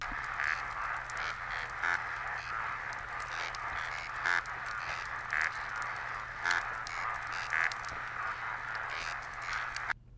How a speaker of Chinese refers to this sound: 可是当你发现说这边有很丰富的石首鱼的时候，它恐怕也代表说，它的食物链的上下游也非常丰富。我们来听一听，这也是石首鱼集体唱歌的声音。